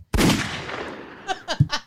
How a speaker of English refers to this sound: If you're sitting at your computer and you're listening to this, you might want to turn the volume down because the gunshots are getting louder.